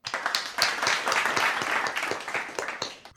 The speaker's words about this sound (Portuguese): agora pausa para aplausos.